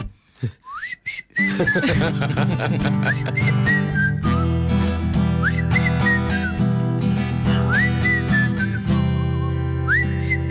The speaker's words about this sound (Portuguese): Comecei a assobiar para o lado e hoje estou com um processo de divórcio tá?